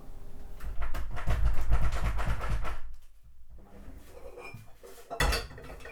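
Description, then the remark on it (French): A saucepan tips over with a loud metallic clatter of kitchenware, a dense jangling burst for a few seconds, then quieter rattling and a final sharp clank near the end. “Le téléphone qui ne capte plus, la casserole qui se renverse, le feu qui s'éteint”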